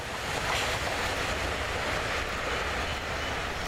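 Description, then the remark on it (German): A steady, loud roar of a train, running a bit late, rolling past on the rails, with deep rumbling and broad hissing noise that holds constant throughout, no voices present. “Nebenbei, der Zug ist ein bisschen spät.”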